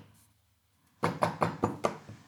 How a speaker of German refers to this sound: bitte nicht die ganze Zeit auf den Tisch klopfen. Das macht den Sound im Arsch.